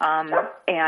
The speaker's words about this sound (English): and that's my dog. you might have heard